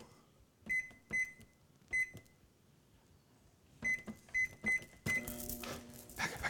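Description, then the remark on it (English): A microwave oven's keypad gives several short, sharp beeps in two quick bursts, then the oven starts up with a steady, humming whir as it heats garlic butter for a grilled cheese sandwich. It is fairly loud, and nobody speaks. “Microwave. Garlic butter for the for the grilled cheese.”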